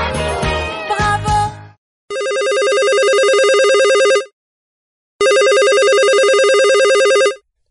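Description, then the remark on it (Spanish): A loud telephone rings twice in long, steady bursts with a pause between, following a short burst of clattering, jumbled noise at the start. “ya nos volvieron a llamar.”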